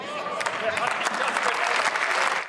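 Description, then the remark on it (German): Steady applause in the German Bundestag, dense clapping filling the whole stretch at an even level, with faint voices murmuring underneath. “Im Hintergrund fragt da jemand so ganz leise im Applaus versunken, wer hat sich das denn ausgedacht?”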